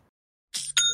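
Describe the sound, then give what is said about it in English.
A short bright electronic chime of two quick bursts with ringing tonal overtones, heard clearly on its own after a moment of silence, like a cash-register style notification; it is the Shopify notification for a new sale. “It's the sound of another sale on Shopify, the all in one commerce platform to start, run, and grow your business.”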